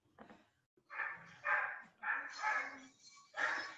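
Several dogs, not the speaker's own, bark in a rapid, overlapping series of sharp yaps, with brief pauses between bursts and no other sounds competing.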